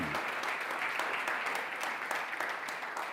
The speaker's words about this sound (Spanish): ¿Y quién dijo eso? nuestro Señor Jesucristo. Un fuerte aplauso para Él en esta tarde.